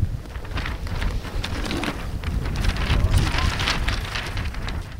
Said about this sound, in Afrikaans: dit is nou 'n winderige dag hier in die baai en ons is hier by die Noordeinde Meer.